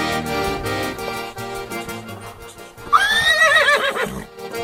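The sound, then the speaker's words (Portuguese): A dapple-grey horse lets out a loud whinny partway through, a shrill wavering neigh that trembles downward, preceded by a few seconds of busy thumping and shuffling noise. “O que, que achou do relixo do cavalo?”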